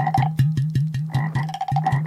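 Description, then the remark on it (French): Toads lounging by lagoons at dusk croak in a low baritone, a rapid series of throaty pulses repeating in steady rhythm, fairly loud, with no voices present. “Tandis que le crépuscule sonne le départ du jour et l'arrivée de la nuit, les cliquetis en staccato des insectes troubadours qui faisaient s'entremêlent croissement en baryton des crapauds qui se prélassent dans la fricheur des lagons”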